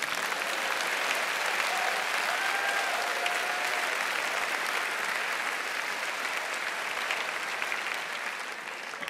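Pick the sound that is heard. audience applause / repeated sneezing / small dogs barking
audience applause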